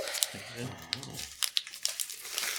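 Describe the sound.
Gift wrapping paper printed with an abstract pop-art collage crinkles and rustles as a large, heavy gift is unwrapped, with bursts of sharp crackling. A voice briefly murmurs under the first second of handling.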